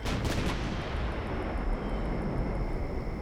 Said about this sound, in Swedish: sitter och lyssnar på tung artillerield